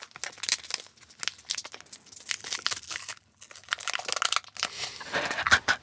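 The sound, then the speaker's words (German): A Snickers candy bar wrapper crinkles and crackles in irregular bursts of bright, papery rustling, with brief pauses between handfuls of sharp crunchy crackles, moderately loud and heard on its own without talking. “Und ich glaube auch, es gibt bestimmt Sounddesigner, die sich auch mit äh, der Verpackung und mit Verpackungsmaterialien von Snickers auseinandergesetzt haben.”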